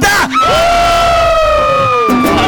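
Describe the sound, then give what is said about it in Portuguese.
A single loud, sustained scream belted from the throat, holding one strained pitch for about two seconds before cutting off sharply, alone with a faint crowd-like murmur behind it. “Enche o peito, solta o grito da garganta.”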